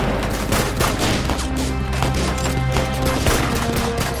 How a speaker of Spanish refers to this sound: Desde el suelo responde a los disparos.